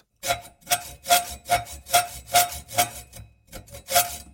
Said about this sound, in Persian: این صدای اره آهنبری است که تیراهنی را می برد